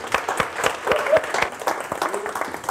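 An audience claps steadily to welcome a speaker giving a talk on running a sustainable serviced accommodation business, a dense patter of many hands with sharp individual claps scattered throughout, holding fairly constant loudness for a few seconds.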